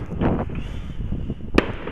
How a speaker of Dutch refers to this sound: En ik sta nu echt, terwijl ik de hond uitlaat, een podcast op te nemen en te kijken naar een behoorlijke cake die hier de lucht in gaat. Ja, ik kan hiervan genieten.